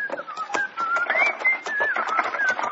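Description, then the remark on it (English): A man cheerfully whistles a bright, wandering tune while a wagon is being loaded, the melody gliding up and down steadily, while sharp clattering and knocking sounds tap along underneath. “… whistled cheerfully as we loaded the wagon”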